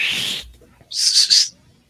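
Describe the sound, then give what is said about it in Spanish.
A short, high confirming mouth whistle: a brief tone at the start, then after a pause two quick rising-and-falling notes in a row, clear with no talking. “Te faltó hacer el chiflidito pues, confirmante chiflidito confirmante es lo mejor.”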